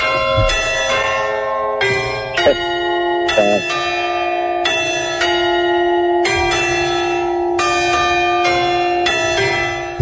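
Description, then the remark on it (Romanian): The clock tower bells of the Palatul Culturii ring out Hora Unirii at the exact hour, a slow melodic tune, each struck note sustaining and overlapping the next in a steady rhythm, loud and resonant with a faint background hum. “Asta e Hora Unirii și de ora exactă în tur, din turnul cu ceas.”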